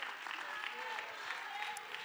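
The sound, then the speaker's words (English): A church audience claps hands during a sermon in a steady, dense wash of applause, a sustained crackling patter that stays even in loudness from start to finish, with no voices standing out. “Can somebody clap your hands?”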